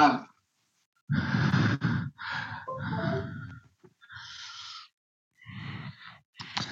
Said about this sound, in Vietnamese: Vâng, tôi đang cảm thấy rất là nhiều năng lượng và nếu các anh chị nghe thì nữa thì có thể nghe thấy tiếng thở của tôi ở trong micro đúng không ạ?